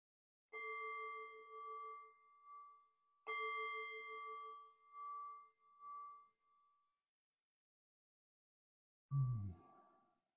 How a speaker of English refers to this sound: And so I'll ring the bell here and I'll just offer maybe five minutes of guiding um, as a way for us to connect